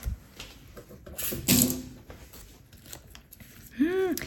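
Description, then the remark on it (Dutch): A few crisp snips of scissors cutting through something, followed by a short rustle and a brief hummed vocal sound near the end. “Waar is mijn schaar?”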